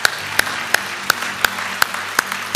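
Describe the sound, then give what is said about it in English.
An audience applauds to congratulate people who have just prayed to receive salvation, with steady rhythmic clapping: sharp, evenly spaced claps land about three times per second over a continuous wash of crowd noise, with no talking. “Now let's join the angels in heaven and let's congratulate all these people.”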